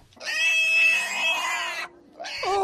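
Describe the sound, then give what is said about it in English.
A hoofed animal screams loudly during a hoof trim, one long, harsh, wavering cry followed after a short pause by another, with no talking over it. “It could be, you would think there was like a bloodletting happening. It's just a hoof trim.”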